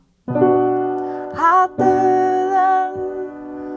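A sustained minor chord rings out on a keyboard-like instrument, then is struck again a couple of times with brief changes between, clear and fairly loud with no talking.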